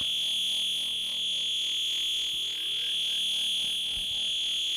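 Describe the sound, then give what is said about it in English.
A resonant synth filter self-oscillates into a loud, piercing high-pitched whistle that holds steady for the whole stretch, with faint buzzy overtones and no voices. “So once again, kind of changing how this thing self oscillates. I'll add some resonance. Turn that up to maybe eight.”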